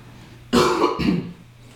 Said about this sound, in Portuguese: Desculpa aí, gente, que eu tive que tossir.